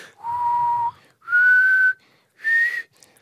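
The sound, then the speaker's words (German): Someone whistles three clear notes of a radio play theme melody, each held for about half a second to a second, stepping upward in pitch with short pauses between them, fairly loud with no talking. “Diese, also versucht es nachzupfeifen. Ja, diese Melodie, die nie ich aufhört.”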